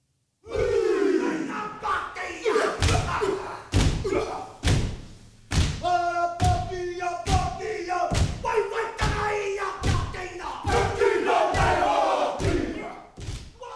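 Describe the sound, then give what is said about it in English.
A group chants loudly in unison while performing a Māori haka at a hui, with forceful shouted voices punctuated by heavy, rhythmic stomps and thuds that land every second or so, powerful throughout. “Yeah, these are some really moving scenes, especially the hakas from the Hui.”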